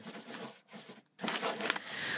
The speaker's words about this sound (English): I had to pull out my graphite filled pencil and draw a thank you sign